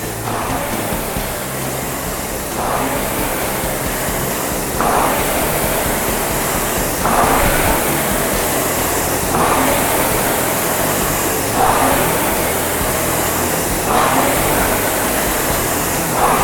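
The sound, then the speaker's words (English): A rowing machine's flywheel spins during a one-minute step up in workout intensity, with a constant airy whoosh that swells rhythmically with each stroke, about every two seconds. Loud and steady throughout, with no voices. “Let me hear that flywheel.”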